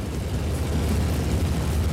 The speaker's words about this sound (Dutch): de motoren van die 16 Dakota's waren aan het warm draaien.